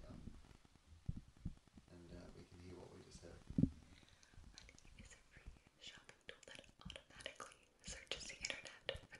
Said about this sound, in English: it's kind of intimate. But then I started focusing on the smacking of her lips and the saliva and stuff.